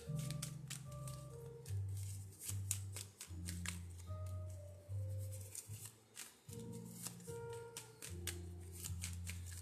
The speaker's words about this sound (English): These are my best shuffle cards.